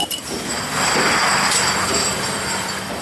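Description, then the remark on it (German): A conveyor belt at the Mahner Brauerei carrying beer runs steadily, a continuous rolling mechanical rush with a thin high-pitched whine over it, growing a little louder after the first moment and holding level, with no voices. “Da wird es uns schon gebracht auf einem Förderband der Mahner Brauerei.”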